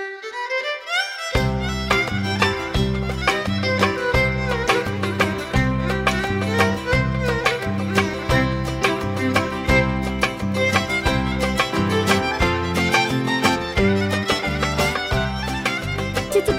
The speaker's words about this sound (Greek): Και δεν εννοώ αυτό φυσικά το, το νησιώτικο, εννοώ τον μπάλο, γιατί αυτό που μόλις ακούσατε είναι μπάλος.